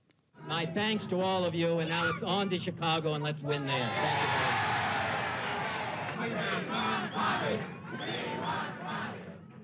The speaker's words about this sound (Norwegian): Ja, vi vil ha Bobby, roper tilhengerne hans her.